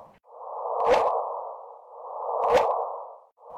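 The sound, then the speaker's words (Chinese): A sonified gravitational-wave signal from two colliding black holes, picked up by a large gravitational-wave detector and played through a speaker: a steady, airy midrange hum that swells twice, each swell peaking in a brief, bright whooshing chirp before fading. No voices. “因此，两个黑洞相撞，听起来的声音就是这样的。”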